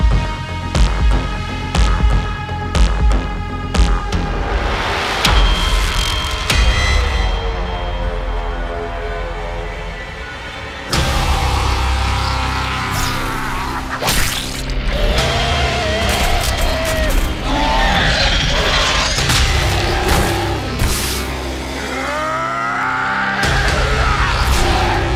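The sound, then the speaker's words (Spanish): A loud, dense trailer soundtrack for the animated series Primal, which appears to show cavemen riding dinosaurs and attacking. It is full of low throbbing rumbles and bellowing, roar-like cries, with an abrupt cut and shift in texture partway through. No speech. “estamos viendo el tráiler de la serie de Primal, que pues es una versión animada de pues lo que parecen ser como cavernícolas montando dinosaurios, atacando.”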